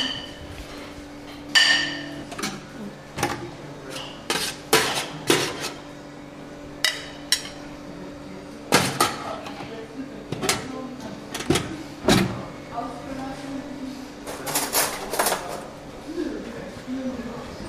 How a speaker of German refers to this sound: Ja, wir sind hier in der Cafeteria und wir sind jetzt äh, Mittag, am Mittagessen. Und wir vorbereiten äh, äh, äh, das Essen für die Bewohner. Ich mache so gerade eine, einen Teller für jemanden, der im Zimmer ist.